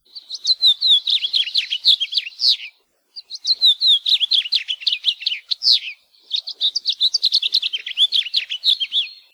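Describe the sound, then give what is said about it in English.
A house finch sings a sweet, rambling warble in three bright, rapid phrases separated by short pauses, clear with no other sounds around it. “House finch's song has been described as a sweet warble and can be heard throughout the year in Hawaii.”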